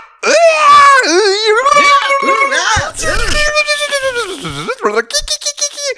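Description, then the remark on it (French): A person imitates a woman's wild shrieking and excited screams, loud, with warbling high-pitched cries and yelps tumbling over each other for several seconds. “qui hurle vraiment, qui fait des bruits absolument incroyables.”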